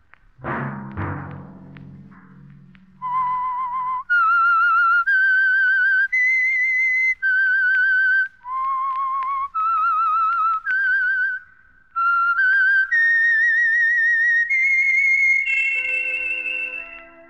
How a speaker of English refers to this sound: Let that whistle be your signal for the Signal Oil program, The Whistler, each Sunday night at the same time